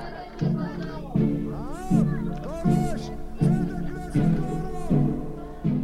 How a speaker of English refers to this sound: What you're hearing is a crowd of protesters in Tel Aviv. Unlike most protests in Israel, this one isn't about politics. It's about a verdict in a murder case that happened 15 years ago.